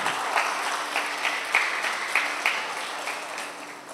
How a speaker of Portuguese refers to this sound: Dê uma linda salva de palmas para Jesus.